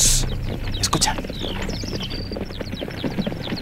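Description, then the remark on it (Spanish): A dense clatter of many horses' hooves pounding rapidly and continuously, fairly loud, with a windy rushing noise underneath and no voices. “Caballos.”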